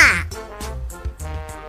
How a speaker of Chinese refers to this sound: 那小鸭呢？ 小鸭会说嘎嘎语。